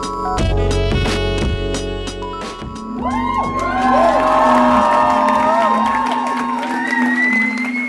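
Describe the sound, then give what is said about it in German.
Loud music plays briefly, then a crowd at the Reeperbahn Festival erupts into cheering, whoops and high shouts rising and falling over a steady low hum that continues to the end. “So oder so ähnlich klang es in der vergangenen Woche in sämtlichen Clubs, Kirchen, Theatern und auf Open-Air-Bühnen auf dem Reeperbahn-Festival.”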